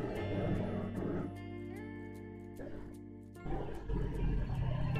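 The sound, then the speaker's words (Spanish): A garbage truck rumbles, its heavy engine droning low while a steady mechanical whine rises and falls in the middle, then the deep roar swells again as it moves past. “Disculpen gente, pero tenía que esperar que pasara el maldito camión de la basura porque el, el fucking ruido estaba a morir.”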